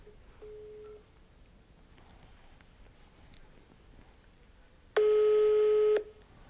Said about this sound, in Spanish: Ahí está sonando el teléfono. Vamos a ver si nos contesta.